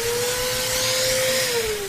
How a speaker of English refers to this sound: Sorry, I just had it handy here. I've been vacuuming.